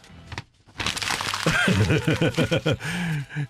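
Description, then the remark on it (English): A sheet of paper crinkles and rustles in a steady, crackling burst lasting a few seconds, with voices talking over the latter part. “This is a paper that yeah”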